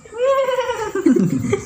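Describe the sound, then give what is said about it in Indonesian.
A single voice imitates a horse's whinny: a drawn-out, nasal, slightly wavering tone that breaks into a rough, breathy sputter. It's brief and fairly loud, with no other talk. “Ini suara kuda kayaknya.”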